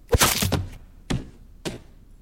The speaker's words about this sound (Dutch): En vrezend dat hij de andere bewoners van het kasteel zou gewekt hebben... haastte de zoon van de slotenmaker zich om hem het hoofd af te hakken.